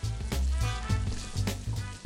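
Coxinhas and bacon frying in hot oil: a steady, dense sizzling hiss with scattered sharp crackles and pops, carried over a low, steady musical backing throughout.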